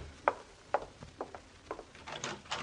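A door being opened, with a series of sharp latch clicks and wooden knocks over a couple of seconds, moderately loud with no voices.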